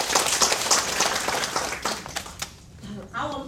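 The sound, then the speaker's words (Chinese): An audience at a direct-selling business presentation claps together for the company in a dense, steady burst of applause that fades out after a few seconds, followed by a voice starting to speak. “好，我们再次掌声给公司。”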